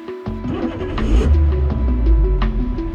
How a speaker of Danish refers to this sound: Genstart kommer på Radio Loud. En podcast om det der irriterende øjeblik, hvor din bil går ud.